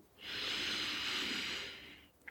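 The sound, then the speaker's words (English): A single long, steady deep cleansing inhale drawn through the nose, airy, lasting about two seconds before fading out, with no talking. “And yeah, if you want to just join me for one deep cleansing breath, Breathing in through the nose”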